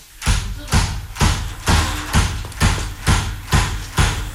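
Repeated dull thuds at a steady beat, about nine blows in four seconds, each a broad, strong whack with a low body and a rustling high edge, like cotton being beaten.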